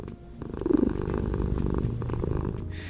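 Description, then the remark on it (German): A domestic cat purrs, a steady low rumble pulsing in a quick even rhythm for a few seconds, with no voices. “Ein österreichischer Forscher hat nämlich das Schnurren von Katzen erforscht.”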